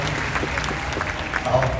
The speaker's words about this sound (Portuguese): Minha esposa, maravilhosa, que está aqui. Uma salva de palmas para minha esposa